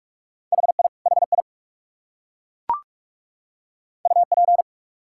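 Rapid Morse code at 45 words per minute, sending common QSO elements, in a steady mid-pitched tone, keyed in quick bursts of dits and dahs: two short groups, a gap with a single soft pop, then another fast group.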